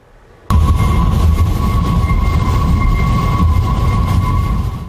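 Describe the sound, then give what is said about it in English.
Wind whistling through the suicide barriers on the railings of the Golden Gate Bridge during a storm with strong winds: a steady, high, hollow tone with a fainter overtone, held over a loud roaring gust of wind that starts abruptly and holds for several seconds. “The Golden Gate Bridge produces a whistling sound, started ever since the suicide barriers were put in place.”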